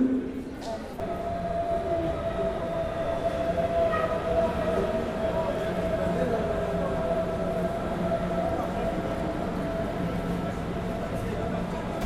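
A train rumbles steadily along the track, a loud, continuous rolling noise with a sustained metallic hum that holds level for the whole stretch.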